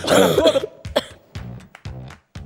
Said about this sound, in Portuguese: Eu queria explicar que ao longo do programa eu vou tossir, eu quero pedir desculpa.